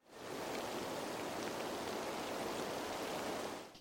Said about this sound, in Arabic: وسمعاني كمان صوت المطر يلي برا ويلي ان شاء الله ما يكون الميكروفون لاقطه وعامل تشويش على التسجيل